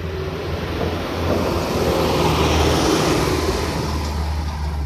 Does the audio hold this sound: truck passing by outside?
yes